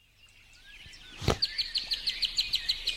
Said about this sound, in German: Ihr hört's, das ist vom Echo Dot. Da habe ich jetzt einfach ein bisschen Vogelgezwitscher uns dazu geholt. Und das kann ich jetzt natürlich auch an meinem Mixer regeln.